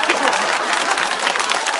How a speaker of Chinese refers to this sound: 这鼓掌的都旅游过。